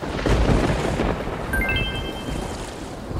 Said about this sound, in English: Raining, hailing, wind is wailing. Hear the thunder roar.